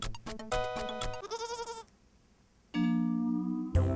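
Loud goat bleats come one after another: a choppy opening cry, a quavering wavering bleat, a short pause, then a long sustained bleat and the start of another.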